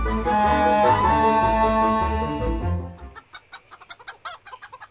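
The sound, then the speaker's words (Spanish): A full musical passage plays, then cuts out as hens in the backyard of a house, being fed, take over with a quick run of sharp clucks, about a dozen short bursts in an uneven rhythm. “A ver, tú, gallinita colorada.”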